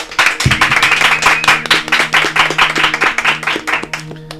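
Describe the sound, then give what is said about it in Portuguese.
An audience bursts into loud, sustained applause welcoming Flávio Augusto and Thiago Nigro, dense overlapping claps for several seconds with a steady, energetic rhythm, while faint music or tones hum underneath. “Então eu quero que vocês recebam com forte aplauso Flávio Augusto e Thiago Nigro.”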